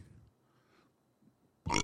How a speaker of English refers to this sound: Um, excuse me. Talk, talking so much, I burped. Excuse me. First on air burp.